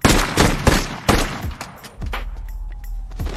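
A burst of gunfire in a film scene as police officers shoot the robbers: sharp, loud shots cracking out in rapid irregular succession, several overlapping volleys with echoing tails and a low rumble underneath, no voices.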